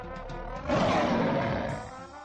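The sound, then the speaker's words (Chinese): A single deep, rumbling lion roar swells up suddenly and holds loudly for about a second before fading, with no voices present. “狮子是我们的国王， 国王万岁！”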